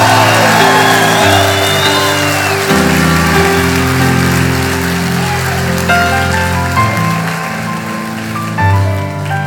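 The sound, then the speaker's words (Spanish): An audience standing and shouting praise to the Lord in a loud, sustained roar of many voices, with steady organ-like keyboard chords changing underneath throughout. “Alguien va a tener que dar un grito de gloria aquí. Es más, ponte de pie y dáselo bien fuerte al Señor.”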